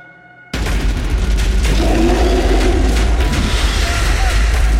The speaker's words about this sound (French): des cris et des coups de feu viennent des tranchées et le bataillon doit faire demi-tour à toute vitesse.